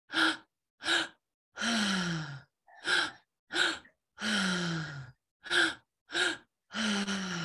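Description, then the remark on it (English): Deep mouth breathing in a steady three-part cycle, breathing into the belly, then the upper chest, then releasing: two short sharp inhales followed by a long, drawn-out sighing exhale, repeated three times, clear with no talking. “so we'll first breathe into the belly, then into the upper chest, the heart, and then release. It's through the mouth.”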